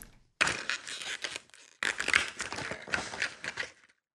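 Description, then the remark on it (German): Door 3 of an advent calendar being opened: rough, crinkly cardboard tearing and rustling in two fairly loud bursts split by a short pause, with no voices. “Und ich werde mit meinem Synthesizer-Projekt einmal fortfahren und werde deswegen mit euch feierlich Tor 3 öffnen.”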